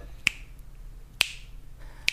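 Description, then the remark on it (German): Three sharp finger snaps spaced evenly about a second apart, keeping a steady tempo like a metronome click, with nothing else but faint low hum between them. “wenn das hier mein Klick ist, dann äh,”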